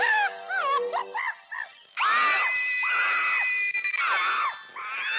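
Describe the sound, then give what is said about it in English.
Loud, shrill yelling traded back and forth in a yell-off contest, rapid wavering cries at first, then long drawn-out screams in swelling bursts, intense with no ordinary talk. “It's a, it's a yell off.”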